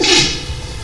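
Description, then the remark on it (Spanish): A single loud sneeze with a sharp breathy burst at the start that fades quickly into a brief, noisy tail. “Salud.”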